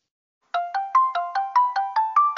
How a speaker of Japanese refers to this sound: あ、電話だ。